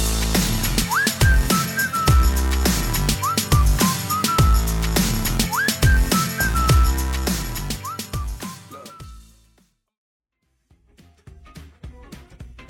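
A catchy whistled melody repeats its short hook over a loud, punchy hip-hop pop beat with heavy bass, then the music cuts off abruptly, leaving near silence.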